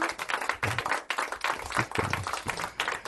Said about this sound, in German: Yay, Applaus die anderen.